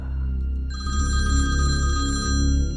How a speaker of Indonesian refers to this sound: Telepon resepsionis bunyi.